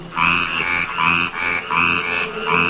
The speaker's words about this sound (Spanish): vamos a escuchar la rana yucateca